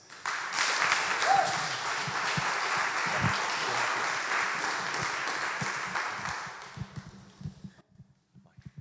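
A church audience breaks into sustained applause welcoming the preacher at the 11 o'clock service, a dense steady wash of many hands clapping that holds for several seconds, then thins and fades out at the end.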